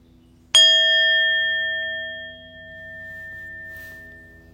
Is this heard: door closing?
no